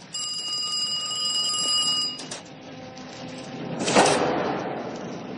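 A telephone rings with a steady, high-pitched electronic tone for about two seconds and then cuts off, followed by clattering and a loud burst of noise as a bus explodes, slowly fading.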